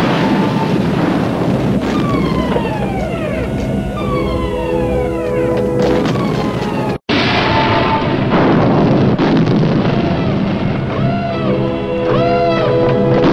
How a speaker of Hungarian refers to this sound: robbanások hallatszódnak, és közben szól a sziréna a folyosón.